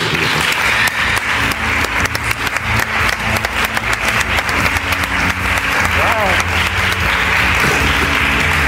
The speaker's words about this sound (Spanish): por eso les voy a pedir que lo recibamos con un aplauso muy fuerte, ayer ganó un premio, Ondas, más ni menos.